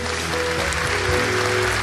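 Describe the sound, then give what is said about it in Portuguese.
A church crowd applauding together, a dense, steady wash of many hands clapping at once, held at an even level for a couple of seconds, with faint sustained musical tones underneath. “Vamos dar uma salva de palmas para ela daqui.”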